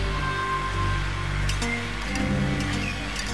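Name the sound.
rainfall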